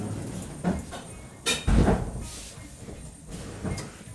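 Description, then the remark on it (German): An automatic door slides with a brief rushing whoosh and a soft thump, set against a steady indoor background hum with a few faint knocks around it. “Leider auch oft zu hören, diese Tür, die mhm. automatisch hier ja.”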